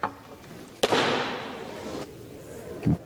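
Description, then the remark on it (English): A gavel comes down with a single sharp, loud bang that rings out and fades, followed by a softer tap and a low thud near the end. No one speaks. “Wow the gavel, the gavel being dropped.”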